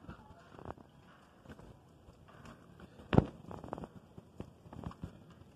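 Steady, noisy patter of heavy rain driven by gusty wind during a storm, heard from a house's front door, with surging bursts of hiss and one sharp knock partway through, no one speaking.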